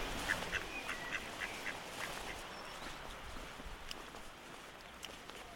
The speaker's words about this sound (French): faites attention, il y a un canard à côté de vous.